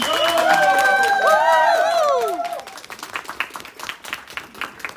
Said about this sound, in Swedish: Applådera maten här.